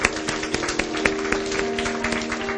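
A church audience at a baptism service applauds for Jesus, a dense, steady patter of many hands clapping at once with a few sharper claps standing out, over a faint sustained low tone.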